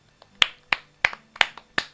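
applause

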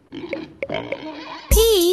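pig oinking

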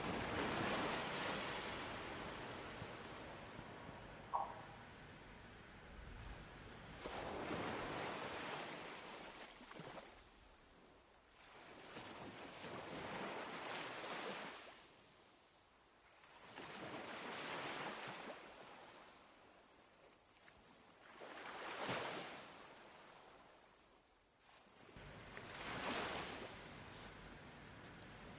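ocean waves

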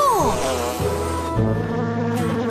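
bees buzzing

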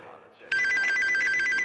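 telephone ringing

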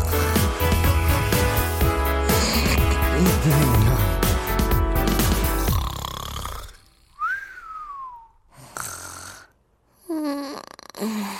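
snoring

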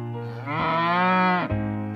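cow mooing

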